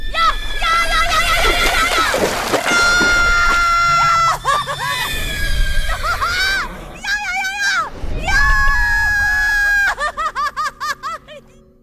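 A bird screeches loudly and harshly as it flies upward, dives and seizes a horse's body with its claws, its cries overlapping in dense, piercing bursts, then breaking into a quick series of short, pulsing calls that taper off at the end.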